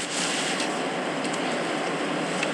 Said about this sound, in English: calling that in a car somewhere by the sounds of it, or on a hard shoulder of a motorway.